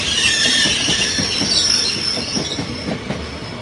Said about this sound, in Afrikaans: dit's 'n helse skok, is 'n helse groot geraas en die trein kom en dit gaan deur